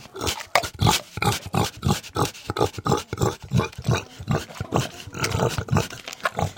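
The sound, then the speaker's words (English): A pet pig grunts and snorts in a rapid, steady series of short, rough bursts, fairly loud, carrying on without pause for several seconds with no one speaking. “I have a picky pig.”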